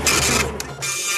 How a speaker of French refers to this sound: ce que vous entendez là, c'est le fax de Lionel Jospin.